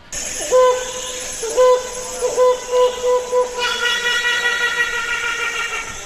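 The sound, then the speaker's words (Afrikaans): A helmeted hornbill calls with loud, hollow, horn-like hoots, first spaced apart and then coming faster, giving way to a dense run of higher, laughing notes. No one speaks. “Um, ek gaan nou vir Nick, die klankregisseur vra om die klank van die neushoring voel te speel sodat mense nou kan hoor hoe hy klink want hy's nie hier op ons kontinent nie.”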